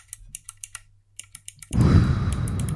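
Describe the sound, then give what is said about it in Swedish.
Crisp, clicky keystrokes on a mechanical keyboard newly fitted with Speed Bronze switches tap out at a steady pace, then erupt into a loud, dense clatter of rapid typing that continues to the end. No voices. “Det återstår att se om det är jobbigt när man skriver på många tangenter samtidigt med det klicket, men jag tror att det kan vara rätt okej.”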